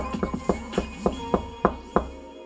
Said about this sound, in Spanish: Porque tenías una visita, discúlpame, o alguien quería ir a visitarte y te sigue golpeando. Y tú no abres y golpean y golpean tu puerta y tú no abres.